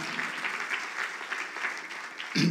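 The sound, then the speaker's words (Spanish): Members of the Fuente de Aguas Calientes audience give themselves steady applause, a dense crackle of many hands clapping at an even loudness, with a brief louder burst near the end. “Amén pero tú eres parte de la fuente de aguas calientes, entonces date un aplauso a, aguas calientes, ¿verdad?”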